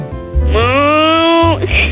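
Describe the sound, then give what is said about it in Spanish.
A child's voice lets out one drawn-out, rising moo in imitation of a cow, about a second long and fairly loud, with low background hum before and after. “¿Puedes hacer el ruido de una vaca?”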